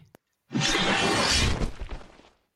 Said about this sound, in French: Une, une guillotine. Une guillotine. Absolument. C'était le petit piège de Squeeze. Ah puisque vous venez d'entendre finalement le son d'une guillotine, machine française à décapitation du XVIIIe siècle.